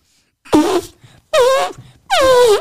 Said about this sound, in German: Komm, wir machen ein bisschen Musik. Pack mal deine Trombone aus.